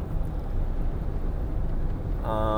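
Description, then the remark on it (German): Steady, loud low rumble of road and engine noise from inside a moving car as it overtakes another car on the right, with a brief hesitant vocal sound near the end. “ups, jetzt überhole ich gerade ein Auto von rechts.”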